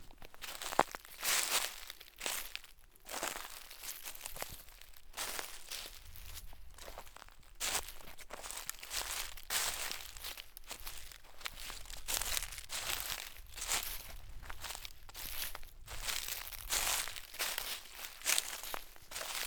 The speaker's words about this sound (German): Im Herbst sind die Eichen so auch gut an ihrem Laub zu erkennen, indem man immer wieder das Knacken der Eicheln hören kann.